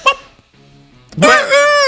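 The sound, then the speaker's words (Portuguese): A person's voice imitates a rooster's crow: a short squawk, a brief pause, then a loud, rising-and-falling strained call held for nearly a second, clear. “ah, agora sim, esse o galo e tá mais um pintinho mesmo.”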